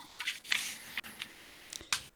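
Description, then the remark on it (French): Paper sheets rustle and crinkle as people pull them out, a handful of short, dry scraping bursts at a fairly quiet level with no voices. “Euh, là, il y en a qui sortent des papiers et tout, là.”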